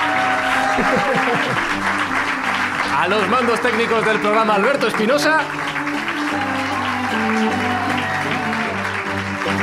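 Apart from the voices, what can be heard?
studio audience applauding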